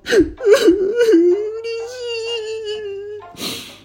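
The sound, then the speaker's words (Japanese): A voice fakes a whimpering cry: a few shaky, breathy sobs give way to a long, wavering whine that trails off into a final breathy exhale. “まあ、泣いてないんですけど”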